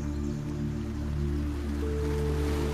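flowing water

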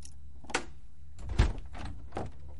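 door opening

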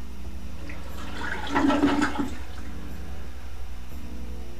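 toilet being flushed

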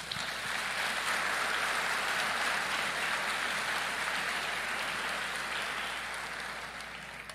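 audience applause

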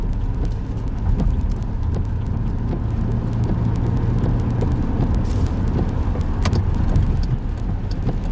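car driving on road

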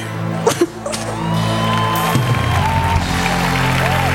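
audience applause and cheering

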